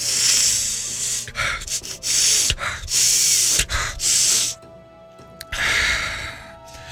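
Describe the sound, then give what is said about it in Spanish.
Several loud, strained inhalations drawn through a constricted nose, imitating short, air-starved breathing during a cold, each a harsh hissing rush of air separated by short pauses, effortful, with a final longer wheezy breath. “Vas a inhalar fuerte, pero vas a sentir que todavía te falta aire.”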